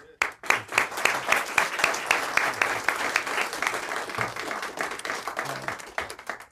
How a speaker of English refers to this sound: And so, yeah, I just want to appreciate the resolution that you all passed on moving the monument and say thank you to you all and lead a round of applause for you. Thanks.